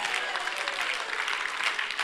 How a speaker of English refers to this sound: Oh, somebody clap your hands.